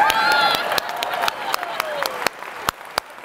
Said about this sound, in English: First, let's clap it up for these Patriots.